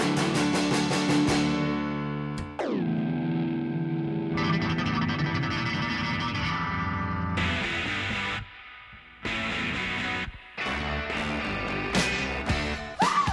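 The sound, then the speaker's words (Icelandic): Loud fuzz-distorted electric guitar with thick, buzzing sustained chords, a sharp downward pitch dive early on, then choppy stop-start strums cutting in and out. No voices. “Þetta er föss. Það á að vera hátt.”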